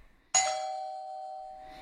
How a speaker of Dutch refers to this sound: De bel gaat.